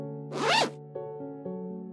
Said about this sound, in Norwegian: Den henger på en knagg ved inngangsdøra. Hun plukker den ned, og Ørjan følger gråtkvalt med mens hun drar glidelåsen møysommelig igjen.